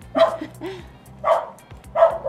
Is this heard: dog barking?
yes